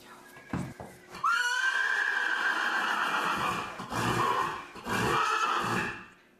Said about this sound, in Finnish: Ihanaa, sehän hirnuu. Herra jestas. Harvoin kuuleeko hevonen hirnuu.